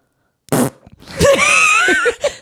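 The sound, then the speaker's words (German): A voice imitates a loud fart let out by a participant in a quiet course: a short breathy burst, then a long, buzzing, wavering raspberry sound lasting about a second, with no other talk. “Es hat einfach eine Teilnehmerin mega laut losgeputzt.”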